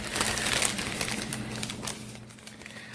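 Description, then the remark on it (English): Continuous crinkly rustling of paper slips being stirred and shuffled by hand to draw a winner's name, fairly busy, with a faint low hum underneath and no voices. “My hands are oh, rifling through God. the slips of paper.”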